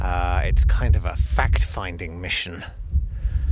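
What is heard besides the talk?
wind buffeting the microphone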